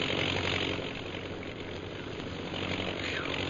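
A low-flying propeller bombing plane drones steadily overhead, its engine a loud, constant hum that stays even throughout, with no voices.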